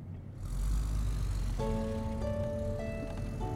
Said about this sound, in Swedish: Bilen brummade vidare och svängde snart upp vid farmors stuga. Mamma parkerade den lite snett och sa Det här får duga.